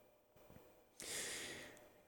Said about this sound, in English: Take a sip from the chalice.